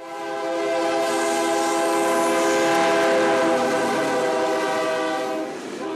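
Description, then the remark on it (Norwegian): A freight train in Mexico sounds its horn in one long, loud, steady blast lasting several seconds, rich in tone, with rumbling rail noise underneath and no voices. “De har reist illegalt med tog gjennom Mexico på vei mot USA.”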